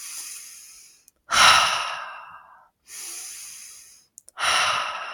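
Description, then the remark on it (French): Slow, deep breaths drawn in and let out in a steady rhythm, four long airy phases, with no talking. “Du coup, eh bien, quand on sent cette tension-là, plutôt que de s'abandonner à la tension, on va venir respirer.”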